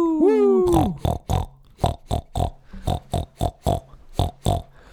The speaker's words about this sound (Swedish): Då var vi tillbaka till det här med grisarna helt enkelt.